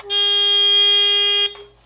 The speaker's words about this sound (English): So when I'm not touching, nothing happens, right? But when I touch, so I've just made a a buzzer, um, a nerve tester game, so that when I, um, I'm going to try and go from one side to another without it starting to, without it going.